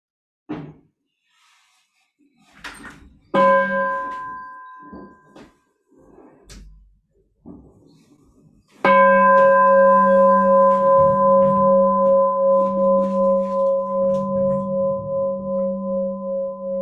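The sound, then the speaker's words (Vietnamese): A meditation bell is struck firmly once and rings out loud, its rich tone sustaining with a slow, wavering pulse; a softer, shorter bell touch and light taps come before it. “dạ, xin xin cô thỉnh một tiếng chuông cho mọi người à, buông thư”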